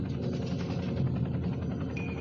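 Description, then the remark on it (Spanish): A steady, dense low rumble of a helicopter in flight over a jungle and a sacred petrified mountain, heard from inside the helicopter, droning evenly without pause and with no voices. “desprendidas del tocón petrificado sagrado que ahora sobrevolamos desde nuestro helicóptero.”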